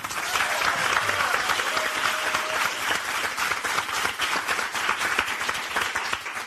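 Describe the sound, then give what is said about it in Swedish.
Sustained audience applause for a panelist being introduced, a dense wash of many hands clapping at steady volume for several seconds, with a faint whistle-like tone briefly rising above the crowd. “Gott folk, ge en varm applåd till Linnea Wikblad.”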